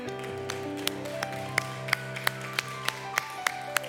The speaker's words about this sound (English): Could you applaud him?